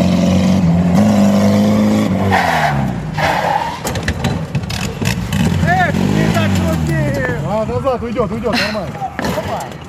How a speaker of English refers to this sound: Happening in Russia, mechanics remodeled an old Soviet car in a very special way. The car was modified so that while driving, it can roll upside down and keep on going.